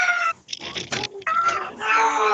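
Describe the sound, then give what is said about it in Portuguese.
A cat yowls loudly and insistently while being bathed in warm water: a string of drawn-out, wavering cries with brief breaks between them, rising into a long, strained wail at the end. “Aí eu pensou que o gato fez não, não, não, tá não, Olha como grita.”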